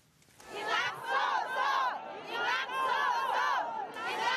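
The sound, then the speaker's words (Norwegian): Several hundred supporters of Thailand's ousted prime minister Yingluck Shinawat shout and cheer together outside the Supreme Court as she appears there, a loud, sustained roar of many overlapping voices, swelling in several surges after a brief quieter start. “Men hun har fortsatt stjernestatus blant tilhengerne, og flere hundre av dem møtte opp utenfor rettslokalet i dag.”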